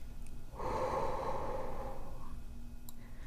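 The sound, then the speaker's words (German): A single slow, deep breath, drawn in through the nose and let out slowly through the mouth, an airy rush lasting under two seconds before fading into quiet. No one speaks. “Atme tief durch die Nase ein Halte kurz an und atme dann langsam durch den Mund aus.”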